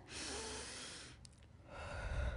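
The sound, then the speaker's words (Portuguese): A person demonstrates slow, deep breathing: a long, airy inhale lasting about a second, a short pause, then a breathy exhale, imitating a baby's breathing. “Nós precisamos aprender a respirar como um bebê.”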